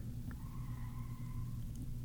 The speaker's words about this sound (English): Oh God, did you hear that? Yeah. Everyone, a car just screeched outside my window. It did, which is really weird because we're on the second floor.